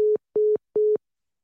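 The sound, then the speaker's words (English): Three short, steady beeps of a telephone line tone after the caller accidentally hung up the phone, evenly spaced in a quick rhythm like a busy signal, clear with no voices. “Uh, I think he, I think he might have accidentally hung up the phone.”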